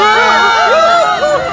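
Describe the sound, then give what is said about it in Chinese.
A theatre audience screams in panic and flees as the crystal chandelier falls, many high, wavering cries overlapping continuously and loudly for the whole moment, with a chaotic babble of voices underneath. “观众们尖叫着逃跑。”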